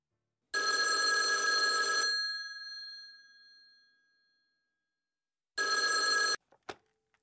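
A loud telephone bell rings twice, the first long ring trailing off with a humming resonance before a shorter second ring, followed by a couple of sharp clicks as if the handset is lifted.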